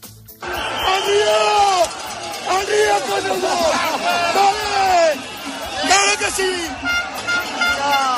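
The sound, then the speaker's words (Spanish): A crowd of protesters at the Aragonese Parliament (Cortes de Aragón) shouts loudly and continuously, many overlapping voices yelling and calling out together, a group urging the others on against the police, unbroken across the whole stretch with only brief dips. “Se escucha un grupo animando a los demás al río con ellos, con los policías.”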